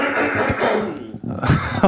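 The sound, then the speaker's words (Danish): A person coughs several times, harsh, broad bursts spaced unevenly, with a brief lull in the middle before a louder pair of coughs near the end. “Undskyld, jeg hoster”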